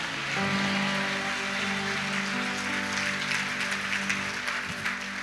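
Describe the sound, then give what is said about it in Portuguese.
An audience applauds in praise to God in a steady, dense wash of clapping for about five seconds, while sustained keyboard chords hold underneath. “Aplaude e dê um glória a Deus, meu irmão.”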